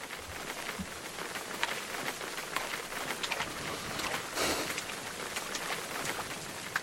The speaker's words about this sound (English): It's actually kind of nice, you know, the rain and the woods feeling our feet in the mud, the texture, getting into the earth.